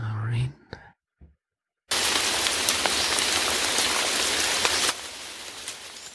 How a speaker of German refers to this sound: So. Ein bisschen Regen.